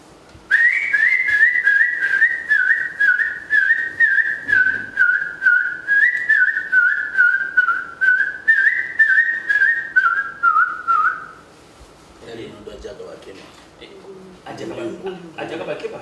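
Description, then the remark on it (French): A person whistles an imitation of a monkey-eating bird's call: a steady, mid-pitched whistle pulsing rapidly for about eleven seconds, followed by voices talking and laughing. “Ah, ils disent que c'est un oiseau qui mange des singes.”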